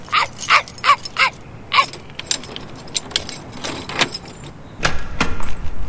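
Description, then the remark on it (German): A dog named Pippin lets out a quick run of short, sharp barks near the start as it follows a trail, mixed with jingling metallic rattles of a house door key, then quieter shuffling and clinking noises follow. “Ja, such, Pippin, such.”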